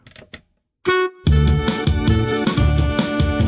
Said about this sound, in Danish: Og hvad, trommemaskinen, kan du lige øh, teste den af?